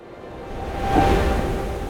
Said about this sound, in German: Meeresrauschen.